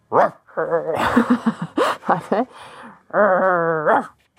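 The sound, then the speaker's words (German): A person practicing with a bark trainer imitates a dog with a string of loud, throaty barks and yelps from the larynx, some rising and falling in pitch, ending in a long drawn-out howl-like bark. “Nach vielen Jahren mit Stimmtrainer, Stimmtrainerin, jetzt auch Belltrainer”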